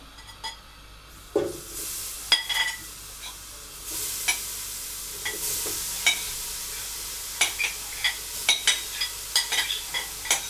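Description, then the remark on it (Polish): A steady hiss of sizzling fat as a roux made with oil is moved into a pot on a gas stove, while a wooden spoon scrapes and clinks repeatedly against the pot, stirring in short, irregular strokes, moderately loud, with no talking. “Teraz biorę olej, dlatego już włączyłam gaz, że po prostu oleju wleję trzy łyżki i będzie to absolutnie będzie to absolutnie idealna ilość przeniesiemy zasmażkę do garnka.”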